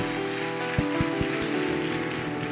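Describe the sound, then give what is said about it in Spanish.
A church audience applauds the Lord in a dense, steady wash of clapping, with sustained instrumental tones humming underneath and a few soft low thumps. “Si le dan un aplauso al Señor, déselo fuerte.”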